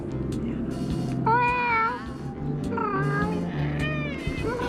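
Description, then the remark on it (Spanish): An old black cat, alert and anxious, meows three times in drawn-out, wavering cries, one after another, over a steady low rumbling hum in the background. “Mi viejo gato negro cuyo carácter me es tan conocido, estaba indudablemente alerta y ansioso hasta un punto muy extraño, dada su conducta habitual.”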